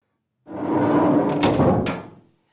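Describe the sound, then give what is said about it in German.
A refrigerator door opening: a steady, rushing swell lasting about two seconds, with two sharp clicks near its end before it fades out. No one speaks. “Ja, schauen wir doch mal in den Kühlschrank.”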